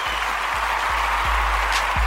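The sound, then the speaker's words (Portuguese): A steady burst of applause, many hands clapping densely and continuously for a couple of seconds, fairly loud, with a few low thumps underneath and no one speaking. “Não, não precisa de palmas”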